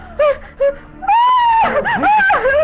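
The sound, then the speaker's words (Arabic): A woman's voice cries out in two short yelps, then a long, loud, high-pitched scream that breaks into a wavering, sobbing wail, with no talking. “تطلق اي صرخة”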